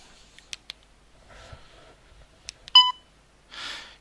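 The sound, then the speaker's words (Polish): A short, bright electronic beep from a device, signalling that the whole content of its external memory has been reached, preceded by scattered button clicks and faint handling noise, then followed by a brief hiss-like burst. No one speaks. “I piknięcie oznacza, że to już jest e, całość zawartości e, całość zawartości e, zewnętrznej pamięci.”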